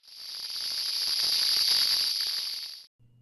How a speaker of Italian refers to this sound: Segue un intenso sfrigolare non identificato.